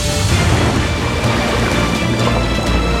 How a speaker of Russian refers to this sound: Море забурлило!